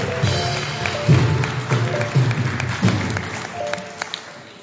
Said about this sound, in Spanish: aplauso fuerte al Rey de Gloria.